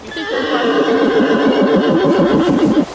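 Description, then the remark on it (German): A horse gives one long, loud whinny, calling its herd, its voice quavering in rapid undulating pulses for nearly three seconds before breaking off abruptly. No one speaks. “Und über das Wiehern verständigen die sich ja untereinander.”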